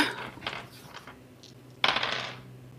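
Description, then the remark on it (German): Dice rattle and tumble across a tabletop, rolled for a dodge check in a game: a few light clicks at first, then a sharper, louder clatter that skitters briefly before settling. No voices. “Ich würfel heute nur Murks, nicht geschafft.”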